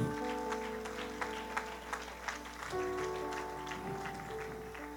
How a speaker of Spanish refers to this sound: Dele un aplauso al rey.